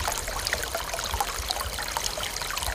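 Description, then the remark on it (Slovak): Steady trickling of spring water at a forest well in Slovakia, a continuous bubbling dribble with small splashy droplets, moderately loud, with no voices. “v čase sucha, lebo sú na prameniskách, pokiaľ by aj potôček ďalej vyschol, tak tu bude voda vždy ale je to niekedy aj blízko pri cestách.”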